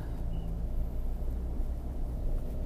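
Steady low engine and road rumble from inside a car driving through a Jakarta traffic jam, a constant drone with no breaks or distinct horns, filling the whole stretch without any voices.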